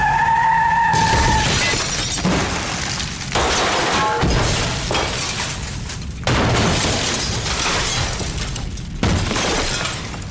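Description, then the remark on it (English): A car's tires squeal in a brief skid, then a loud crash erupts into several waves of shattering glass and crunching debris that keep bursting for about ten seconds, with no voices. “But again, this is a non canonical TV adaptation, so let's just safely assume that Chanice wound up in the same car accident that took the kid's parents.”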